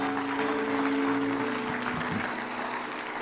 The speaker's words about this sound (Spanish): Vamos, aplauda al Señor esta mañana.